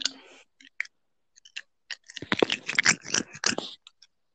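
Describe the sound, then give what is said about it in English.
Crunchy chewing on a plastic bottle cap, with sharp irregular clicks and cracks that start sparse and build into a dense burst of gnawing before trailing off. “I was chewing on a cap.”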